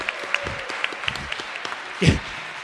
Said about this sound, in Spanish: Un aplauso para él.